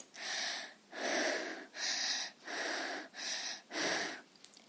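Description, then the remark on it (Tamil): A voice imitates heavy panting: six quick, breathy huffs in a steady rhythm, loud and close, with no talking. “அடுத்து பேண்டிங் மூச்சு வாங்குதல் வேகமாக படியேறினாலோ மலையேறினாலோ அல்லது ஓடினாலோ மூச்சு வாங்குவது பேண்டிங்”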